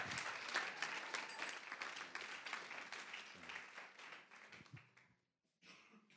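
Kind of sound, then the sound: crowd, audience applause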